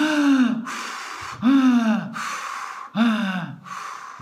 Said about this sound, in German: Ein, ausatmen, ein und der Ausatmen. Sprich, es gibt keine Pause. Also es ist etwas so hörbar